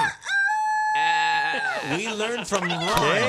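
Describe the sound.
Several people loudly mimic animal calls at once to welcome Ron McGill of Zoo Miami as a guest, overlapping bleats, crowing and squawks with strained, wavering harmonic pitches that rise and fall, filling the whole stretch with raucous voiced imitation.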